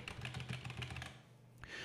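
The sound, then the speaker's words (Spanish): Quick, soft keystrokes on a small AliExpress mini membrane keyboard, a gaming-style keyboard with lights, a rapid run of muffled clacks that thins out after about a second, with no one talking. “Bien, es un mini teclado de, AliExpress de membrana que es eh, más o menos gaming, ya que tiene eh, luces gaming y es bastante configurable.”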